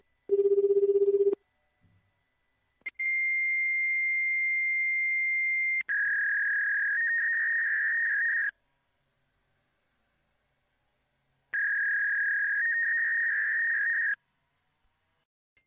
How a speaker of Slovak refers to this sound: to je odpoveď modemu alebo nejakého takého zariadenia. Ja neviem, možno som sa dovolal aj na nejaký modem, čo ja viem, ale je možné, že, že to bol fax, že sa so mnou snažil naviazať spojenie, neviem.